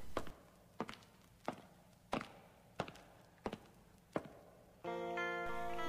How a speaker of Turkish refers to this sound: o zaman ayak sesleriyle başlayan bir şarkı dinleyelim.